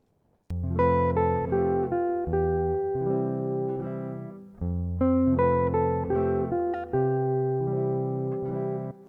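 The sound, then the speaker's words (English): A slow, sustained instrumental melody with rich harmonic chords, played in two matching phrases separated by a brief pause, steady and fairly loud with no voices; section 3, a repeat of the four measures of the first verse, highlighting the emotional use of appoggiaturas. “This is a repeat of the four measures of the first verse, which highlight the emotional use of the appoggiaturas.”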